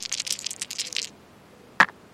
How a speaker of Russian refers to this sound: Давай так, ты находишь коробку ага. Э, и кинем кубик на твою удачу. Э, хорошо, кидаю.